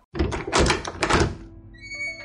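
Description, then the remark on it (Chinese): Master Turtle opens his door: it opens with a couple of heavy, rattling clunks, followed by a thin, high-pitched creak as it swings. No voices. “龟大师一开门，妙鸭总管把手里的小婴儿交给了龟大师，便倒在了地上。”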